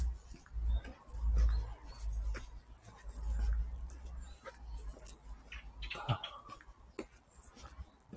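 A bird calls intermittently outdoors over a low, rumbling background of wind or traffic, with a more distinct call near the end; no one speaks.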